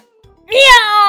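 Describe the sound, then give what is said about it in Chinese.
A single drawn-out meow of a big fat cat in a told story, likely voiced by a person imitating a cat, loud and nasal, rising briefly then sliding slowly downward in pitch over about half a second, with nothing else around it. “喵的一声，猫又窜了出来。”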